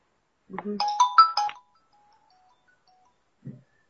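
A short electronic phone ringtone melody plays once as an outgoing call is placed, a bright burst of chiming tones lasting about a second, followed by silence and a faint low blip near the end.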